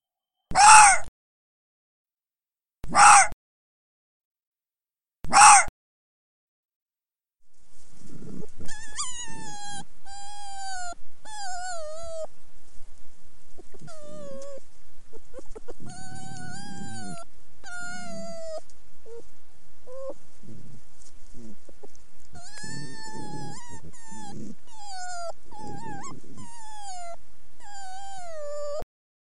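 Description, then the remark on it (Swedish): Three sharp, separate territorial barks from an arctic fox ring out, spaced a few seconds apart, then give way to a long stretch of arctic fox pups chattering and squabbling with each other in high, wavering whines, yips and chatter, continuous. “Ja, först är det revirskallen och sen är det när valparna håller på och pratar och käbblar med varandra.”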